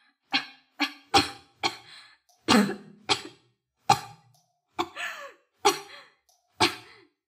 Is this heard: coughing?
yes